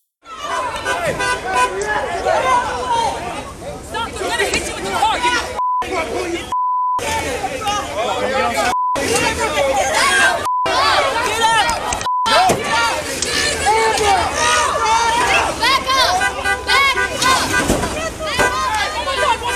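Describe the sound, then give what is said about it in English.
A loud, chaotic mob shouts and chatters continuously while swarming a truck, many voices overlapping, broken by several short electronic bleep tones and brief silent dropouts partway through. “you'll see the mob swarm a truck.”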